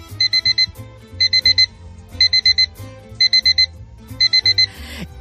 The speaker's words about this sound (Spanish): ¿Cuántas alarmas necesitas para despertarte cada mañana?